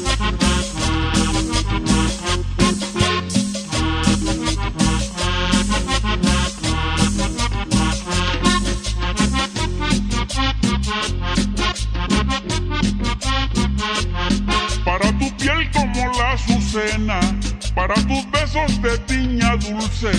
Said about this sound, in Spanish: Vámonos escuchando estas cumbias, señores.